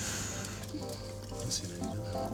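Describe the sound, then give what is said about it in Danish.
Water trickles and splashes steadily into small glass test tubes that have been emptied of their contents, a continuous pouring sound with faint ringing tones and occasional brighter splashes, with soft background murmur. “Så nu, øh, nu hælder vi vand op i øh, de her små reagensglas, der er blevet tømt af indholdet ud i en...”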